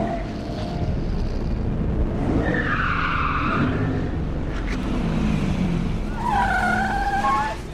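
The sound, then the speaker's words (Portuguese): Tires squeal sharply twice as a car driving up Avenida Brigadeiro Luiz Antônio toward Avenida Paulista swerves hard when the steering wheel is turned all at once, the high screech rising over a steady rumble of engine and road noise, the second skid louder and wavering. “vira o volante de uma só vez.”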